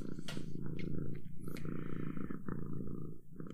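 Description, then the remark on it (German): A tired cat that wants to cuddle purrs, a steady rumbling purr that pulses in a continuous rhythm from start to finish, fairly loud and uninterrupted. “Die Katze ist müde. Die will nur kuscheln.”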